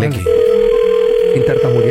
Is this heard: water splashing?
no